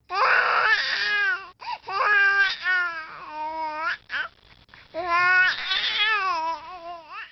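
A human baby cries loudly in long wavering wails broken by a few brief catches of breath, with no other voices.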